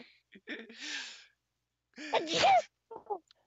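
A single sneeze: a breathy, drawn-in buildup, a short pause, then a loud explosive burst, followed by a couple of soft breathy sounds.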